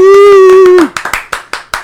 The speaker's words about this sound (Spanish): Un aplauso, un aplauso.